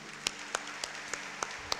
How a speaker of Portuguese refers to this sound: Aplauda Jesus, bem bonito.